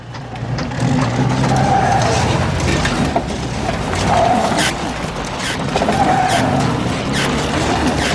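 A car skids as it pulls over, with a loud, sustained rush of road noise, tires squealing in several swells over about eight seconds, steady throughout with no talking.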